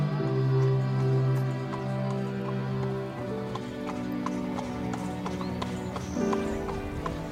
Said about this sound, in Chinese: 当他在瓜达尔基维尔河的左岸听见马蹄声。他会按下录音键